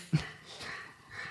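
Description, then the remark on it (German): A dog wheezes and snorts, starting with a short sharp snort followed by raspy, breathy wheezing sounds that continue quietly. “Das ist der Hund das übrigens. Ist der Hund.”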